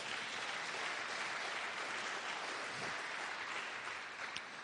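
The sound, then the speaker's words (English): A large crowd at a church service claps steadily to give the Lord a hand, a dense wash of many hands applauding at once, sustained and fairly loud throughout, with no voices standing out. “Give the Lord a hand.”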